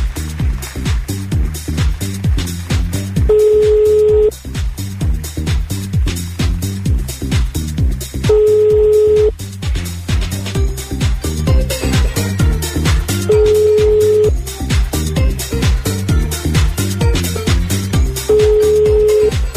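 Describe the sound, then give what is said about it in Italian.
A telephone ringback tone sounds while an outgoing call to an engine tuner connects: four steady one-second beeps spaced about five seconds apart, clear, over continuous background music with no talking. “Stiamo chiamando questo amico che insomma ci hanno girato sto numero.”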